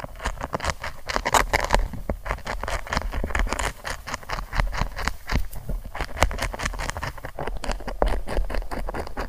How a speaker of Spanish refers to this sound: Estas señales son grabaciones de audio reales que suenan como una oruga comiendo y hacen que la planta vibre físicamente. Suena así.